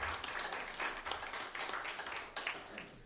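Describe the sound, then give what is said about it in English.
A crowd gives the Lord a hand clap of praise, clapping steadily for about three seconds, a dense, sustained patter of many hands with no voices standing out. “If you agree with me, give the Lord a hand clap of praise if you agree with it.”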